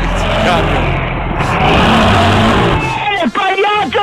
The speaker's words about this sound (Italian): Dove va? Dove va? Dove va? Ah, il camion.